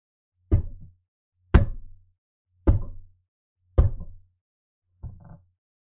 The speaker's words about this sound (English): And Jesus is there knocking